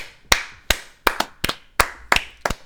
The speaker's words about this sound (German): Sollten wir mal äh, klatschen